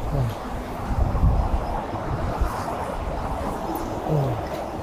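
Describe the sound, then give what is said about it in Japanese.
Rough sea surf with strong waves roars steadily, mixed with gusty wind buffeting the microphone, the rumble swelling briefly a couple of times; no one speaks. “まあ、だいぶ波がきつい感じありますね。”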